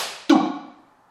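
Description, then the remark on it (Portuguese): A single soft, dull thump, imitating a child's head hitting the floor after falling out of bed, lands once and fades out with a short, hollow resonance. It is moderately quiet, with no talking. “Aquela batidinha de leve, sabe? Aquele barulho que você ouve do outro quarto.”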